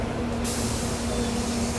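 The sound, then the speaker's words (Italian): A city bus's air brakes let out a sudden, sustained hiss at the Dante San Martino stop, served by lines 106, 104 and 108, over the low idling rumble and steady hum of the engine. “l'autobus, la fermata Dante San Martino, la 106, la 104 e la linea 108.”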